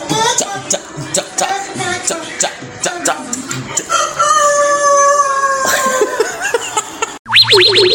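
A run of short, sharp clucks gives way to a long drawn-out rooster crow, loud, ending with a quick springy warble.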